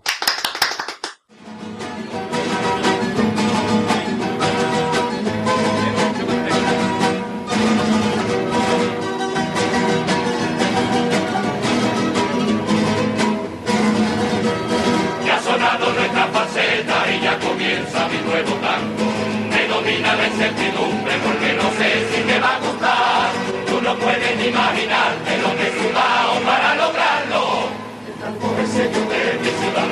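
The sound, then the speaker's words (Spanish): A carnival choir sings a tango, many voices in steady, loud harmony with rhythmic accompaniment that carries on almost without pause after a brief silence at the start. “Bueno, pues este fue, este es el que pega, el tango que pega para esta ocasión.”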